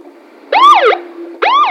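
Two short police car siren whoops, each a quick rising-then-falling wail with a pause between, loud, over a steady low hum and with no talking.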